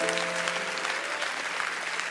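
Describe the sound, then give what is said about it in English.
A crowd claps their hands together for the Lord in a steady, dense patter of overlapping claps, loud and sustained throughout, with a faint low hum of voices or music underneath. “Let's clap our hands for the Lord right now.”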